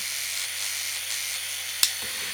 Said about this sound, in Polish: Tak pracuje golarka sama. Tak pracuje z trymerem włączonym.